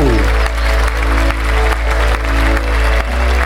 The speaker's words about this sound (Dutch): Ga een hard applaus